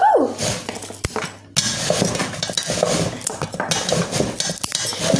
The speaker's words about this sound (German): Ich mache das mit der Schere. Okay, Karotten schneiden mit der Schere.